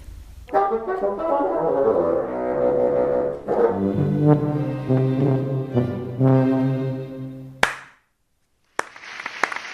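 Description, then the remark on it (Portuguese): An orchestra plays sustained low, harmonic chords with bassoons and tuba, ending with a sharp accent. After a brief silence, a single clapper starts the MET audience, who burst into loud, dense applause for the conductor and orchestra that carries the final second. “puxou as palmas do público do MET para mais um aplauso ao maestro e orquestra”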